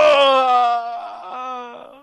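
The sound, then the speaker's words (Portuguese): A person voices a long, drawn-out dying moan, starting strong and wavering downward before trailing off, a theatrical imitation of a game character's death. “Agora morrendo, perdeu a vida, tá?”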